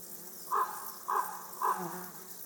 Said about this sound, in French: Je suis installé dans une clairière à enregistrer les, criquets des adrets, Cortipus apricarius.